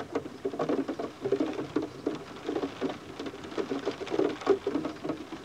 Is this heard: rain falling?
yes